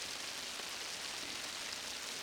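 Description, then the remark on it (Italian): Steady, incessant rain falls in Brest throughout, a soft, even hiss of drops with no pauses, fairly quiet and diffuse, with no voices present. “le mitiche caramelle alla liquirizia hanno pensato di aprirsi spatusciandosi ovunque e liquefacendosi con l'acqua della pioggia incessante di Brest.”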